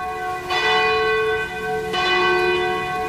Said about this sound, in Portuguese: Faltam 11 minutos para as 10 da noite e toca o sino da Catedral da Nossa Senhora de Aparecida.